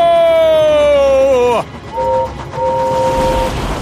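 A loud steam train whistle blows with its pitch sliding downward as an express engine thunders past, giving way to a roaring rush of noise and two shorter, fainter whistle toots.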